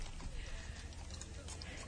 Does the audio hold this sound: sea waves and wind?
no